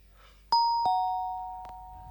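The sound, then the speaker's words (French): A doorbell on an apartment door chimes a clear two-note ding-dong, both tones ringing out and sustaining with a soft click partway through. No one speaks. “sur la sonnette de la porte en face d'elle, Piletta peut lire Madame Plombe.”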